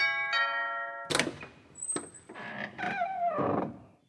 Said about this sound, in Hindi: हम सुबह सो के भी नहीं उठे थे कि घर की घंटी बज गई